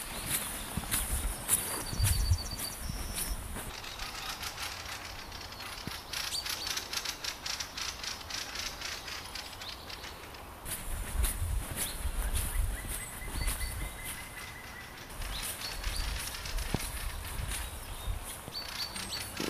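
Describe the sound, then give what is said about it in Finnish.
An outdoor rural Finnish countryside soundscape: steady background ambience with irregular tapping and clopping sounds, low rumbles, and scattered high bird calls. No one speaks. “jos puhutaan tämmöisestä maaseudun äänimaisemasta ja aistiympäristöstä”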